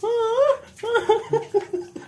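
A dog whimpers: one long, wavering high whine that rises and falls, then a string of short, choppy whimpers of descending pitch, fairly loud and with no talking.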